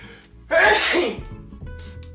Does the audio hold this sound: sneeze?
yes